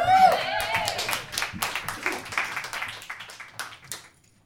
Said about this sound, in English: Round of applause.